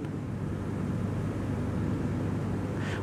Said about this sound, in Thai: ขณะที่ท่านนั่งฟังผมเนี่ยได้ยินเสียงแอร์ไหมขณะที่นั่งฟังผมได้ยินเสียงแอร์ไหม